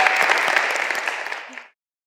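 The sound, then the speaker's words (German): A church audience claps steadily for the child actors after their play, a dense crackle of many hands that stays loud for over a second, then fades quickly and stops. No one speaks. “Und einen Applaus für die super Schauspieler.”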